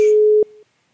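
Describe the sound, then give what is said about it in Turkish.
A steady telephone ringback tone hums at a single pitch while calling a listener in Belgium, loud for a moment and then dropping quieter before cutting off into silence. No one speaks. “A Çalıyor.”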